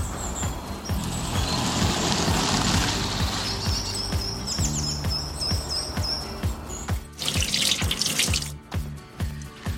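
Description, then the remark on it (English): A kitchen tap runs cold water steadily into a sink over two peeled sweet potatoes that were boiled for about 15 minutes, with a broad hiss that surges louder near the end amid small clinks and drips. “Then I let rest under cold water for a little bit.”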